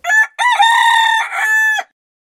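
A chicken crows once, loud: a short opening note, a brief break, then a long drawn-out call that ends abruptly, with no other sounds around it.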